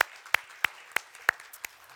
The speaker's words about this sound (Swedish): Och tack så mycket, ska vi ge de här härliga dansarna en applåd också.